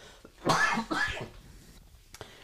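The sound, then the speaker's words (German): Two harsh, breathy coughs in quick succession, followed by a quieter throat-clearing sound, with no talking. “Oh, ich muss noch irgendwas zu trinken haben jetzt hier, weil sonst huste ich mir jetzt gleich wieder einen weg.”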